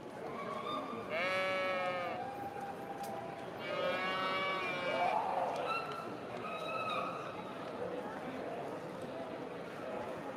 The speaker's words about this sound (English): hear a sheep, certainly.